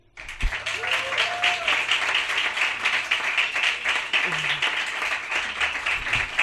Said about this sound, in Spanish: Pero lo primero es recibir con el mejor de los aplausos